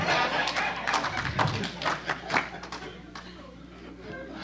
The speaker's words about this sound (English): That was a good answer. Let's clap our hands for the man of God.